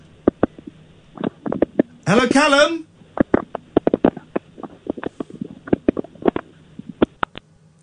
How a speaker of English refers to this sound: can hear him rustling away. Are we in his pocket?